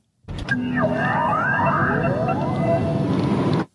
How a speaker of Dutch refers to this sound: Het was een geluid uit een video van ons. Namelijk het opstartgeluid van de eerste elektrische Mini.